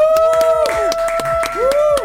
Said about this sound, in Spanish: Y hoy tenemos a un muy, muy, muy buen artista, la verdad. Tenemos un invitado súper especial. Y quiero un fuerte aplauso para que todos le den la bienvenida